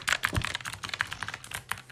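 Rapid typing on a computer keyboard, a steady stream of crisp key clicks with irregular rhythm and no voices.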